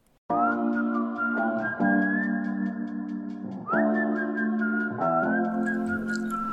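A bright whistled melody from a pop song rides over steady backing instruments, the tune moving in short rising and falling phrases, loud throughout with no voices.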